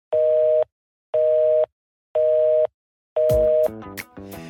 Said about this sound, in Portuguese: É, como vocês viram aí, no finalzinho acabou caindo a, a conexão